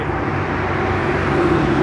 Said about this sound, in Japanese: 今ポルシェが行きましたよポルシェ